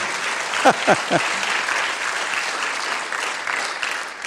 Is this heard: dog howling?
no